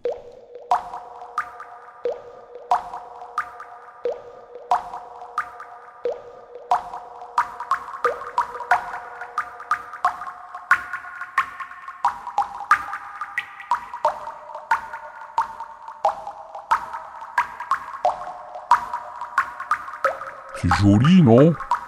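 A melody Marty recorded in his lab from water drops: bright plinks and plops pitched into a stepping tune, tapping out a steady, quick rhythm before a short burst of noise at the very end.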